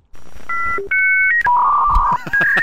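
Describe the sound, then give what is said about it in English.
A dial-up modem dials out to log on to AOL: a quick run of loud, clean touch-tone beeps stepping through different pitches, then longer steady electronic tones as the line connects. No voices. “Yeah, I was gonna say, Mom, get off the phone. I'm trying to log on to AOL.”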